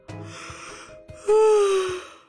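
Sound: yawn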